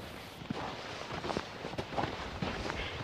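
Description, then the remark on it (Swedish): Footsteps crunch slowly over the old stone foundation of a house on a farm in Pirilö outside Jakobstad, several steady paces against a broad outdoor hiss, with no talking. “Det här ljudet du hör är mina fotsteg när jag går omkring på en gammal husgrund.”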